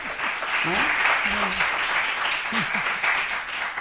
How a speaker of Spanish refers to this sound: Vamos a pedir otro aplauso para ella, ¿eh? para que se vea que estamos bien acompañados.